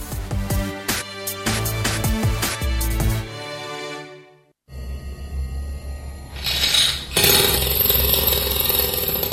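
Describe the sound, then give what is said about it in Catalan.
Loud mechanical power-tool noise with harsh, buzzing harmonics from drills at construction works across a town, heard in the morning; a rattling burst first, a brief drop to near silence, then a steadier grinding whine that grows louder. “El despertador ya no es el primero en saludarte, sino las taladradoras.”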